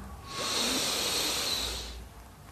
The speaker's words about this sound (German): Okay, wir atmen jetzt gemeinsam alle tief ein.